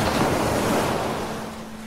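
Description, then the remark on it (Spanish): Ocean waves wash in a steady, broad roar of surf, fairly loud, easing off slightly toward the end, with no voices. “Incluso se podría afirmar que el sonido de la respiración o las olas del océano son expresiones musicales de la vida.”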